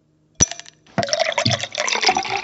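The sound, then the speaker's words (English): A sharp clink of glass, then a steady splashing pour of Johnnie Walker Blue Label whiskey into a glass over a large block of ice, fairly loud, filling the rest of the moment with gurgling and trickling. “Today, we are pouring Johnnie Blue.”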